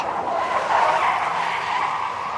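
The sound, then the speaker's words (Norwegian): A car drifts with its tires squealing in a sustained, loud screech that holds steady for a couple of seconds, with engine noise underneath and no voices. “Og som dere hører, de gutta her kommer ikke til å slutte å kjøre rått med bil.”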